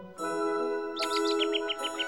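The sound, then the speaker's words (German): A European robin sings a quick run of high, thin, sliding notes, about eight in a row. They come in over a steady, sustained musical tone that plays throughout. “Die Briten wählten Robin Redbreast, ihr Rotkehlchen, 2015 sogar zum inoffiziellen Nationalvogel.”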